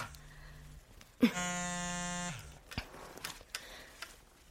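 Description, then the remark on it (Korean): A phone buzzes with an incoming call: one loud, steady, rasping buzz lasting about a second, with faint clicks and rustling before and after and no talking. “아, 저 잠깐 전화 좀 받을게요.”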